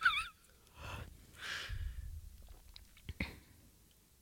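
A person yawns, a drawn-out breathy exhale with a soft voiced groan, followed by a few quiet clicks and breaths in otherwise hushed surroundings.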